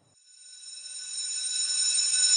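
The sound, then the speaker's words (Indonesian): A school bell rings to end a class lesson, one continuous, shrill electric tone, swelling steadily louder over a couple of seconds with no voices underneath. “Karena bel sudah berbunyi, maka kita akhiri pertemuan hari ini.”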